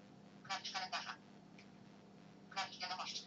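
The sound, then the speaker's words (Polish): Muffled sound from a telephone speaker covered by a right hand, with two bursts of dull, ringing, buzzy tones around a low steady hum, slightly tinny and resonant. “Słychać, że ten dźwięk jest po pierwsze bardzo stłumiony, a poza tym nie wiem, czy to słychać, pojawia się takie dźwięczenie, prawda?”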